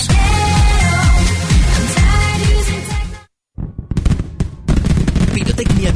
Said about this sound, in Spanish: tracas, petardos, cohetes, misiles, fuentes de luz, bengalas, baterías y muchísimos artículos más para festejar Nochebuena y fin de año.